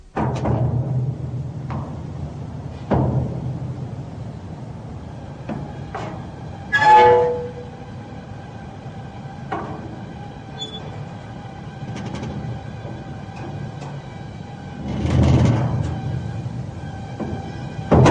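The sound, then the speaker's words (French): A metro train rumbles into a station, its low roar swelling and fading with sharp clanks, a brief squealing brake tone midway, and a renewed rush of noise near the end. “celle de la musique, d'un violoncelle et celle d'un métro qui entre en gare.”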